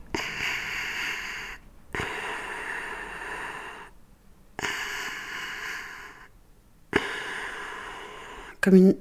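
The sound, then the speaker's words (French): Four even, steady whooshes of pushed air come at a regular pace with short silent pauses between, a mechanical ventilator's breathing cycle, ending with a brief sharp tonal blip. “comme une, respiration, mais c'était beaucoup trop régulier pour être une respiration. Puis il y avait ce petit accrochage. On m'a dit que ça s'appelait un respirateur.”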